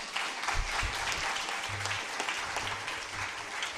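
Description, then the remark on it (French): A crowd at a morning worship service claps steadily, a dense, continuous patter of applause that holds at an even level for several seconds with no voices over it, applauding to show their presence to viewers watching on screens. “Est-ce qu'on peut applaudir pour leur manifester notre présence”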